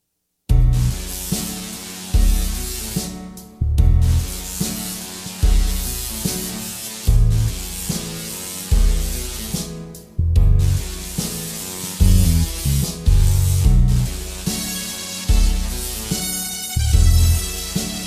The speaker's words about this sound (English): music played by a uh, Tesla coil. Well, you know what? That's coming right up. This is the absolute coolest thing I've ever heard. Listen to this.